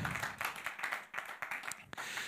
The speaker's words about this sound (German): Deswegen lass uns doch nochmal für die Leute am Podcast, für die Leute am Livestream nochmal einen richtig fetten, lauten Applaus geben, dass die auch schön mit dabei sind. Herzlich willkommen!